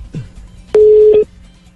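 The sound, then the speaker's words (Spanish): A telephone ringing tone of a call from Buenos Aires to Madrid sounds once, a loud, steady electronic beep lasting about half a second, preceded by a soft click and faint low rumble, with no one talking. “Ahí está timbrando el teléfono.”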